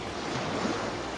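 Sea waves lap against a small boat in pitch darkness in a steady, rushing wash of water with a faint windy hiss, moderately loud and unbroken throughout, with no voices.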